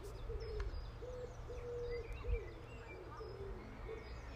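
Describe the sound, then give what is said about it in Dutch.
Birds call outdoors on a sunny day, with repeated low cooing notes from a dove and fainter higher chirps scattered around, over a steady hum of background noise. “Ik hoor vogeltjes om me heen.”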